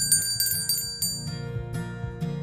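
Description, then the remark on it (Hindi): An ice cream vendor's odd call, like an auto horn, honks repeatedly in quick bursts over a steady buzzing tone in a neighbourhood lane in the evening, calling children together; fairly loud, with no voices present. “auto के horn की जैसी अजीब सी आवाज़ से वो बच्चों को इकट्ठा कर लेते थे”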